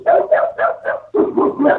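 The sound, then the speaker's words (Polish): A dog barks rapidly and repeatedly, about seven sharp, loud barks in quick succession with a brief pause midway. “Czyli to pies.”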